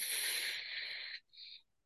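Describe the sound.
A steady, breathy "fff" exhale held for just over a second, followed by a brief, softer second puff of air, with no talking: breath work done lying semi-supine with knees raised and feet and lower back on the floor, breathing in and then out on an f sound.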